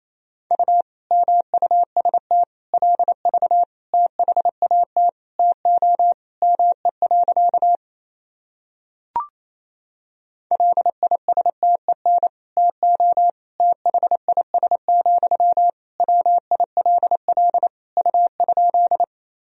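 A steady single-pitch tone keys on and off in rapid Morse code at 28 words per minute, dots and dashes at a brisk clip, with a short silent gap midway and a faint click before sending resumes.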